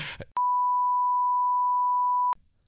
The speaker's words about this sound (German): Bei jetzt jedem Mal, wenn jetzt ein Sponsorname fällt, äh, nicht, dass ihr denkt, das ist jetzt alles Schleichwerbung dann kommt so ein, so ein Piep, so ein genau. Zen Zensurton.